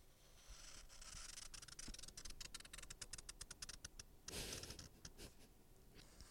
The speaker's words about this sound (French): Écoutez le bruit du feutre sur la feuille.